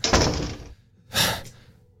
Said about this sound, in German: er streckt seinen Kopf raus aus der Tür, guckt nach links, guckt nach rechts, packt euch beide bei den Schultern, schiebt euch in das Haus und mit einem unfassbar lauten Knallen lässt er die Tür in die Angeln rasen.